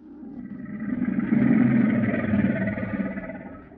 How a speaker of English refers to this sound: That's a couple of crocodiles roaring.